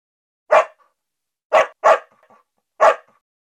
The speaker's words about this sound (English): When it gets dark, our dog likes to bark and bark.